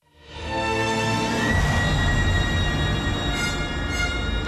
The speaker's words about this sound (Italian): c'è una, una coda finale di circa un minuto, una splendida coda in cui tutti gli elementi messi in gioco galleggiano come dei relitti che galleggiano su, su un mare che si è calmato dopo una tempesta. Ascoltiamo questa coda.